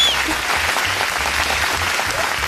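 Steady applause from an audience, a dense crackle of many hands clapping at once that stays fairly loud and even for a few seconds, with no voices standing out.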